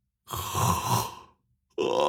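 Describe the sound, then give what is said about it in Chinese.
A voice imitates the yawn of a drowsy, tipsy man getting up after drinking late at night: one drawn-out, breathy, groaning vocal sound lasting about a second, then a short silence before another loud vocal sound begins. “吴平山喝的眼睛都快睁不开了，起身就打了个哈欠。”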